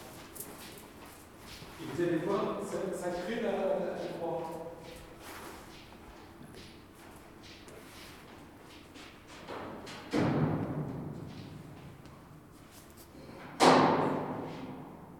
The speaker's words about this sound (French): Alors je vais aller ouvrir la porte.